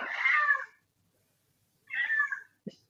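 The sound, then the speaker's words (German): A female cat meows loudly twice, each drawn-out, wavering call lasting about half a second with a pause between, followed by a brief soft thump at the end. “sonst brüllt die ja noch ewig weiter.”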